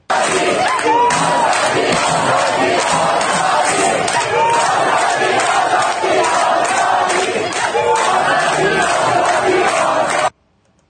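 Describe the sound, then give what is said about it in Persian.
A large crowd of protesters in Tehran Pars, Tehran, chants slogans such as 'this year is the year of blood, Seyed Ali will be overthrown' in loud, rhythmic unison, voices surging together in repeated phrases with shouts rising above, sustained for about ten seconds before cutting off abruptly. “بله این از تهران پارس باز تهران پارس سعادت آباد تهران”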